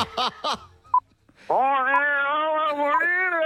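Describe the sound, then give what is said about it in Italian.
A voice imitates a gorilla singing a song in Sicilian underwater: two quick yelping calls, then a long, loud, warbling sung drone that wavers in pitch for about two seconds. “Una bella … cantata dal gorilla in siciliano sott'acqua.”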